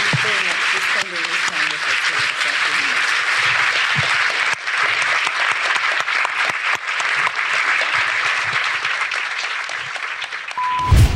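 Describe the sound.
At the end of a discussion, an audience breaks into sustained, dense applause lasting about ten seconds, steady and loud throughout, with a few faint voices briefly audible under the clapping at the start.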